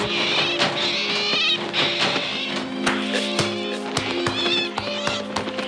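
A giant owl with two red eyes, coming toward a window at night, screeches in harsh, high-pitched wavering cries that repeat for several seconds, mixed with sharp clattering hits and a steady low droning tone underneath.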